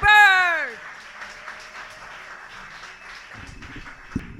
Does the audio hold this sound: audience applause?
yes